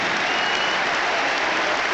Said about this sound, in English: Ryan Babel for Torres. Torres. Yeah, I think Torres will come up on here. yeah. Uh, 19 for 9. It means Fernando gets his applause.